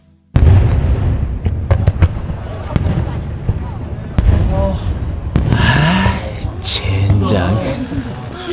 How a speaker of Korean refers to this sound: 그걸 보자 윤석이랑 같이 봤던 불꽃놀이가 생각났다. 군입대를 앞두고 우리는 제야의 종소리를 들으러 갔었다. 그때 봤던 불꽃놀이.